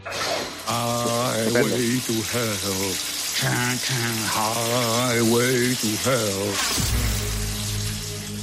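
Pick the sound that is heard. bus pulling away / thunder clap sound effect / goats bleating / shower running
shower running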